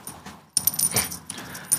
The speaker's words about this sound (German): Ein Glöckchen. Aber das ist. Warte, also sei, mal bitte, sei mal bitte still. Hört man das? Also ich finde es unfassbar niedlich, weil dieses Glöckchen ist, glaube ich, ungefähr das, was so ein Lind-Schokohase um den Hals hat.